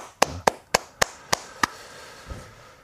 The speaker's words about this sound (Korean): 이 가을의 쓸쓸함을 아 친구의 결혼식을 참석하면서 쓸쓸함을 느끼고 계신 모든 분들께 음, 응원의 박수를 보냅니다. 박수 한번 주시죠.